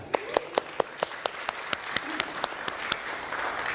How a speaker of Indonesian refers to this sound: Jadi ya, kita tepuk tangan dulu dong buat mereka.